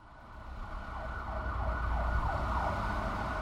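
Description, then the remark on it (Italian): Loud sirens wail with sweeping, overlapping tones, growing steadily louder over a deep rumbling background of engines or traffic. No voices can be heard. “Lo strepito delle sirene era divenuto assordante.”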